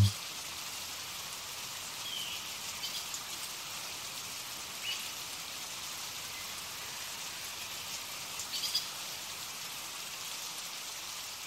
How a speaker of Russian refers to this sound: Могу создать дождь. Гулять в лесу под дождем.